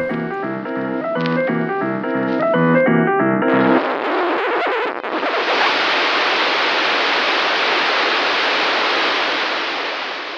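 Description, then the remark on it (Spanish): A few seconds of simple, evenly paced piano notes, the soundtrack of an animated clip, give way abruptly to loud, steady white noise static that hisses on alone until the end. “Pero en lugar de tener una melodía de fondo, este clip está musicalizado con un simple piano que termina transformándose en ruido blanco.”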